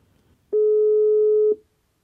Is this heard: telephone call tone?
yes